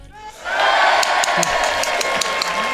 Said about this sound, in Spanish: ¿Le damos un aplauso? Venga, vale